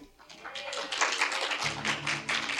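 A crowd breaks into steady, dense applause that swells quickly and keeps going throughout, with a faint low hum or murmur beneath the clapping.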